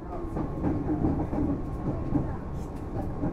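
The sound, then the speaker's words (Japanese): A train bound for Shin-Kiba, stopping at Oimachi, Tokyo Teleport and Kokusai-tenjijo, rolls along its rails with a steady low rumble, a faint rhythmic clatter running through the continuous roar the whole time. “この電車は新木場行きです大井町白川市サイド天王座いる東京テレポート国際展示場篠上終点新木場の順に変わります次は大井町大井町ですお出口は右側です”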